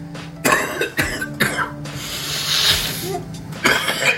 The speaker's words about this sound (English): oh, sorry.